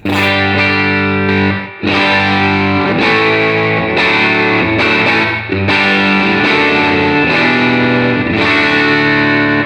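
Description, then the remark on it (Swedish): A loud electric guitar played through an overdrive pedal used as a clean boost, gain off and volume turned up to 11, gives a slightly driven tone, strumming sustained chords, ringing harmonics stacked thick, with brief gaps between chord changes and no talking. “när jag hade min klon, då använde jag ju den som ett liksom boost, clean boost.”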